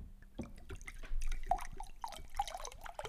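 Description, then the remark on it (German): Bottled Staatlich Fachingen mineral water pours close to the mic in a short burst, with wet dripping and gurgling sounds and a few bright splashy plinks, like filling a glass. “oh, sehr schön, du gießt dir auch gerade was an.”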